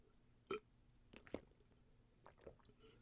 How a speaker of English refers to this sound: All right, if you didn't do it, you just heard me gurgle water.